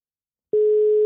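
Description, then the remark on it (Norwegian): After half a second of silence, a steady electronic telephone tone starts abruptly and holds at one pitch, loud and clear, the ringback heard while placing a phone call. “Ja, vi ringer. Vi ringer, vi ringer, vi ringer.”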